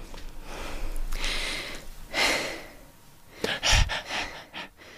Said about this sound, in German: muss wieder erstmal ein bisschen Luft ah. holen. Hast du wieder einen Satz gemacht, ohne zu atmen? Oder drei Sätze ohne zu 30. atmen? 30. 30 Sätze ohne zu atmen.